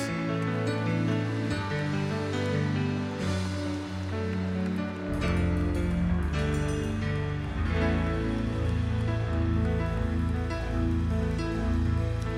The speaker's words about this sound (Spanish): Dale un fuerte, fuerte, fuerte aplauso a Jesús.